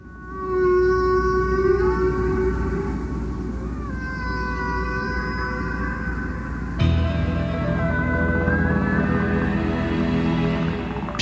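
Humpback whale song: long, wavering moans that slowly rise and bend in pitch, layered over a steady low rushing hiss, with a brighter cluster of calls entering partway through. No one speaks.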